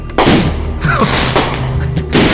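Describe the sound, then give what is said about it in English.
Loud fireworks erupting from a stage, bursting in quick succession, several booming explosions with crackling tails overlapping into a dense, continuous rumble. Powerful, with no voices. “from the stage, erupts fireworks”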